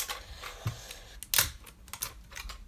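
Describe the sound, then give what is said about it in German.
Crinkling and clicking of a shrink-wrapped box being handled and torn open, with several sharp crackly bursts and small taps in an irregular rhythm, no talking. “Ich will das aufmachen, die Box, obwohl es noch eingeschweißt ist.”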